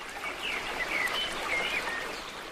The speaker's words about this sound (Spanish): Y si te soy sincera, es agradable estar junto al río, debajo de los árboles, escuchando el ruido del agua, pero podríamos hacerlo sin necesidad de frotar la ropa contra las piedras.